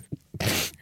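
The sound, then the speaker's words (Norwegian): A single loud sneeze: two brief voiced catches build up, then a sharp, breathy burst lasts about a third of a second before tapering off. No talking is heard. “Prosit, karer.”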